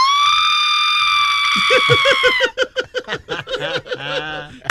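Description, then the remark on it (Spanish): A woman lets out a loud, high-pitched scream, holding it steady for about two seconds before it breaks into quick, choppy vocal bursts. “¿Cómo tú gritas?”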